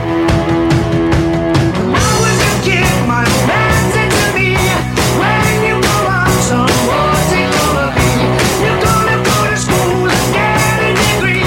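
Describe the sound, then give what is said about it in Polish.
Loud, driving rock instrumental from a famous rock drummer's solo recording, with heavy pounding drums hitting in a steady rhythm under dense guitars and bass, continuous throughout with no singing or talking. “słynny perkusista takich zespołów jak …, … czy …, choć tu słyszymy jego nagranie solowe.”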